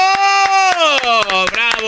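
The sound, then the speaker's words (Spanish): Slow, uneven handclaps, about eight sharp slaps spaced irregularly, sound over a loud sustained voice holding a tone that slides gradually downward in pitch. “Te oigo aplaudiendo sin ganas.”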